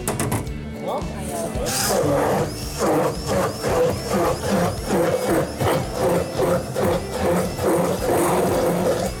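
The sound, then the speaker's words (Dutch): A whirring immersion blender purees pieces of large, ripe mango, its motor noise surging in steady, regular pulses roughly twice a second, fairly loud and continuous for several seconds. “Die grote mango's snijden we in nou, stukjes en dan gaat de staafmixer eroverheen.”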